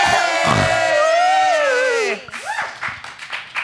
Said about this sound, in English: The cyclone shakes and falls to the ground. Everybody cheers! Yeah!